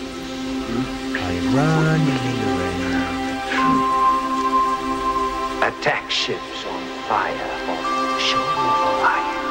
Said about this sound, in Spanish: Este es uno de los últimos temas que vienen con un pedacito de película. La lluvia, ¿no? Todo el tiempo.